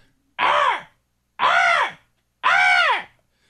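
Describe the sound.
A child imitates a crow at about 6:10 in the morning, trying to talk to crows outside, letting out three loud, drawn-out cawing calls at an even pace with short silent gaps between them.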